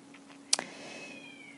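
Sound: cats meowing and caterwauling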